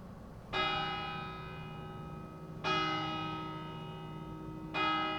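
Town bells toll three times at a slow, steady pace, each strike bright and resonant with a long humming decay that overlaps the next. No one speaks.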